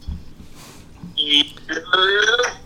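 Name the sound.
phone call ringing tone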